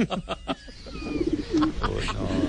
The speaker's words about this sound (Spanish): Ahí están las palomas.